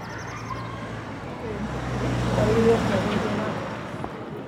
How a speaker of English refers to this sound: Uh, we found out that um, we can hear a lot of um, car engine rumbles uh, and a lot of other different kind of noise because this um, the auditorium where we did all the recording it doesn't have uh, any soundproof door that uh, cover the outside